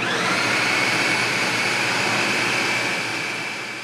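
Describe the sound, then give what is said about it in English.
A blender in a kitchen mixes beans for a white bean dip, running continuously at high speed: a loud, steady motor whir with a bright whine, unbroken, easing off slightly at the very end. No one speaks. “He's caramelizing onions in a pan, mixing all the beans together in a blender.”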